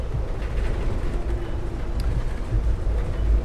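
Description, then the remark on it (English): A steady low rumble of a passenger train rolling along the tracks as it comes into Santa Barbara, with continuous mechanical noise and faint clatter, with no voices. “Please do not step off the train unless this is your final destination.”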